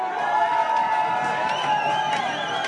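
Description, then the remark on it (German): A packed pub crowd in Kreuzberg cheers and shouts together, a dense, loud wall of voices and whoops sustained throughout with no pauses. “So, wir sind zurück im Kuchenkreiser in Kreuzberg, wo die Stimmung immer noch blendend ist, wie wir jetzt gleich hören.”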